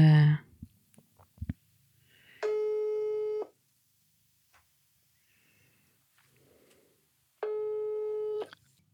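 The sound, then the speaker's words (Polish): Two long, steady electronic ringback tones about five seconds apart, each lasting around a second, heard through a phone with faint handling noise between them and a brief voice at the start. “Poczekaj, dzwonię.”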